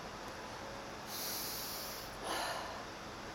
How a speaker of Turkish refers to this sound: Nefes alıyorum ve nefesimi verirken ağzımdan ittirerek veriyorum.